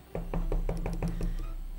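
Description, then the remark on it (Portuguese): A quick run of about seven firm knocks on a door, evenly spaced, with no voices, then a brief quiet tail; someone knocking on a door in a convent at around two in the morning. “Lá pelas duas da manhã, adivinha a porta.”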